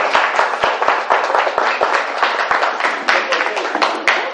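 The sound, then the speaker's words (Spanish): An audience bursts into sustained applause for the mothers and grandmothers standing up among them, many hands clapping in a dense, steady patter with a few sharp individual claps standing out, loud throughout the few seconds. “Sí, bueno, un aplauso a ellas también, por favor.”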